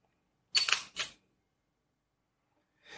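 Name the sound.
camera shutter clicking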